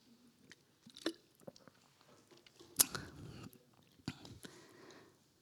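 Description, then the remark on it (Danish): Someone quietly drinks water during a short pause in a talk: soft sips, wet mouth clicks and a few swallows spread over several seconds, with no talking. “Og nu tager jeg lige en vandpause, så kan I kigge på billedet.”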